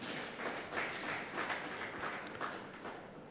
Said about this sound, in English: Church, shall we all clap our hands for Jesus?